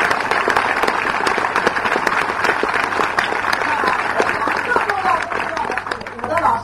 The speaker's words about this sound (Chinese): 我恳请你们，请你们拿出你们最热烈的掌声，啊，让我也对我的老师表达一点点的感谢，我深深的、深深的。